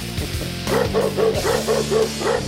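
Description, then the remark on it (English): A dog barks about six times in a quick, steady rhythm, each bark short and fairly loud, set against a dense, continuous background noise with no talking. “Two dogs. Your dog and that dog.”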